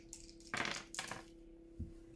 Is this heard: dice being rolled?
yes